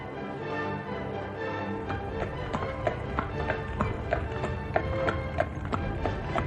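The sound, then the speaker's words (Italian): Steady clip-clop of horse hooves pulling a coachman's carriage through fog, regular taps about twice per second over a continuous low rumble of rolling wheels, moderately loud, no voices. “Dove ci troviamo in questo momento, Vetturino, se non sono troppo indiscreto? Forse lo saprà il cavallo, signore.”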